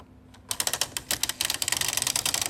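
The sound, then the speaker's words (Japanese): A hole punch machine, used in a radio jingle, clacks away: a fast, uneven run of sharp mechanical clicks and snaps after a brief quiet moment, with no voices. “穴開け機の音”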